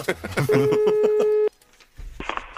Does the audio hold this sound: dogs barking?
no